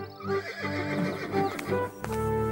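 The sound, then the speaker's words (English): A horse, just sold as the finest in a stable, neighs loudly, its whinny rising and wavering, while hooves clop in a loose, uneven rhythm beneath it before a final sharp knock near the end. “You have bought the finest horse in my stable.”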